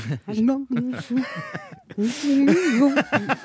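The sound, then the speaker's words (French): A voice imitates a dial-up modem, with warbling pitch sweeps, screechy tones and bursts of harsh hiss running for a few seconds. “C'est un modem ça C'est pour illustrer une mauvaise connexion Internet.”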